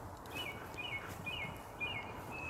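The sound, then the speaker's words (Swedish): A song thrush sings, repeating short, bright whistled phrases three times each in quick succession over a steady hiss of outdoor background noise, with no voices. “Vad var det för en fågel vi det, hörde? Det är en taltrast.”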